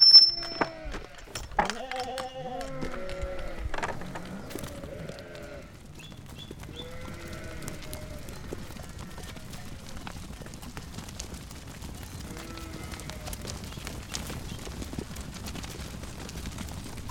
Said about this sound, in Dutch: Ze staan al een tijdje voor het hek te dringen, dus laat de schapen maar los